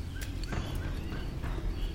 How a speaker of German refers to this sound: Er lässt von dem Busch ab und tritt langsam einige Schritte zurück.